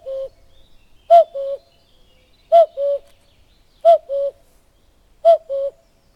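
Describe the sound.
Someone imitates a cuckoo's call, giving four evenly spaced two-note 'cu-koo' calls, each a sharper note followed by a slightly lower one, with quiet pauses between.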